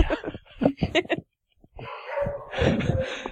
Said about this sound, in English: but you guys can hear my dogs, right?